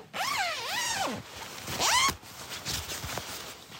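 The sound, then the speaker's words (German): A tent door zipper is pulled shut in a long, wavering rasp at a desert campsite at about 2 a.m., followed by a second quick, rising zip and a few softer tugs and rustles. No voices. “Gepäck aus dem Wagen, Luftmatratze aufblasen, rein in den selbst mitgebrachten Schlafsack, Zelttür zu.”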